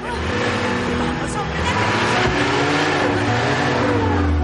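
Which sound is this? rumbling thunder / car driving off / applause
car driving off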